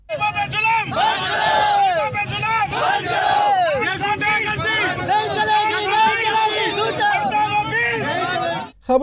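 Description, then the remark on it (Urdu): A large crowd of protesters in Rawalpindi, surrounding the WAPDA office in protest against heavy electricity bills, chants slogans together, voices rising and falling in loud, overlapping shouts that continue steadily with hardly a pause, dense throughout. “راول پنڈی میں مظاہرین نے واپٹا دفتر کا گھیراؤ کرتے ہوئے نعرے لگائے”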